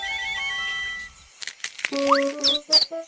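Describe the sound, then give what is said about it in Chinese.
Baby birds chirp in a quick, uneven burst of short, high tweets and rising peeps, following a second of steady humming tones with no talking. “是小鸟宝宝。”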